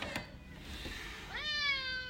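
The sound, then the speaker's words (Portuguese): A neighbor's cat lets out a single drawn-out meow with a rising then sustained pitch, fairly clear, preceded by faint soft noises. “Temos participação especial do gato do vizinho.”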